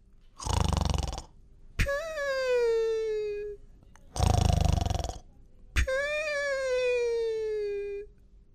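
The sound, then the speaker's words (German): A sleeping cartoon dinosaur snores twice, each a rasping inhale followed by a long, whistling exhale that slowly falls in pitch. It is heard alone, with no talking. “der doch tatsächlich eingeschlafen ist und sogar ein bisschen schnarcht.”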